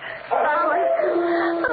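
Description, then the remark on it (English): A loud, eerie howl of a horse, drawn out over a couple of seconds with a wavering, sliding pitch and no other sounds around it. “It sounds like howling.”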